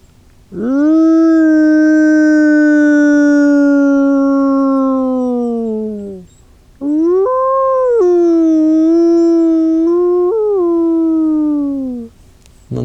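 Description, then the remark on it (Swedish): Wolves howl in long, sustained, rising-and-falling tones, two drawn-out calls fairly close by with a short pause between them, and no talking, shortly after dawn before sunrise. “Bara wow, de är fortfarande kvar tänker jag. Liksom, och ylar inte så långt härifrån.”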